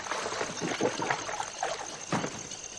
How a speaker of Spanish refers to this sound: Paul llena un cubo con el agua terrosa de los arrozales y lo echa en el caliente radiador